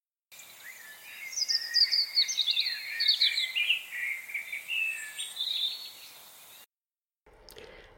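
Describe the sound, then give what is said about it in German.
A common blackbird sings from up in a tree a flowing run of varied, fluty warbled phrases for about six seconds, clear with no voices, then a short burst of noise at the very end. “Und ich finde ja, dass die Amsel von allen Vögeln am schönsten singt.”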